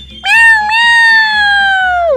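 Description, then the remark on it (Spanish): A single long, drawn-out cat meow, loud, holding a steady pitch before sliding down at the end, with faint rhythmic music murmuring underneath. “Échale unos maullidos”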